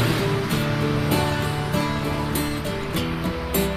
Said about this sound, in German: Er hatte übrigens unter dieses Lied das Rauschen im Hintergrund ist ähm, eine Aufnahme von einer Autobahn der in der DDR. Also sind alles äh, Kraftfahrzeuge der, der DDR, die da zu hören sind.